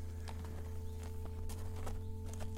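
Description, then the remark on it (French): Hooves of a horse being ridden clip-clop in a steady run of sharp knocks, several per second, over a constant low background hum. No one speaks. “on est à cheval tout à fait.”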